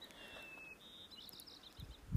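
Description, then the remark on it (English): Faint, high birdsong in a quiet outdoor setting, with thin whistled notes drawn out over a soft background hush, then a low bump at the very end. “Can you hear the birds?”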